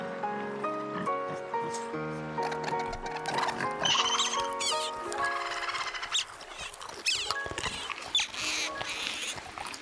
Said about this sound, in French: Il se mit à jouer en pleine nature, Éberlués, émerveillés, charmés, les animaux sortirent de leur cachette et commencèrent à grignoter les notes de sa musique.